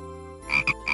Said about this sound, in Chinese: 收听…讲故事，有小青蛙呱呱的陪伴，绘梦快乐童年。